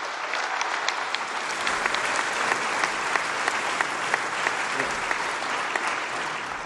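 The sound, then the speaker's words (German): Steady applause from an audience, a dense wash of many hands clapping at an even, fairly loud level for several seconds, with individual sharp claps standing out, and no voices. “Applaus”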